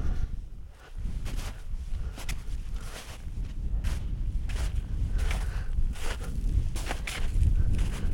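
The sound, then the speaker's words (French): Steady footsteps crunch along a forest trail, about a dozen evenly paced steps over low outdoor rumble, as someone walks downhill descending a mountain, with no one speaking. “Allez, on redescend.”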